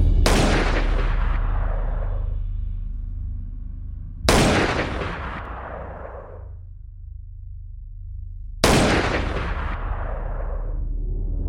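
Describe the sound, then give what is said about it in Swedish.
Three loud gunshots fired at President Kennedy's motorcade over Dealey Plaza in Dallas, Texas, at about 12:30, ring out at roughly four-second intervals, each sharp at the onset and trailing into a long, rumbling echo that rolls across open space. No voices are heard. “Men plötsligt ekar tre skott över Daily Plaza.”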